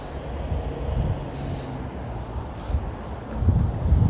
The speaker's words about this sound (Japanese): 車来たもんで